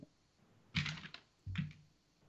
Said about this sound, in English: Um, hear me um, shuffling my papers. I, I really did write that down earlier, but I've lost it.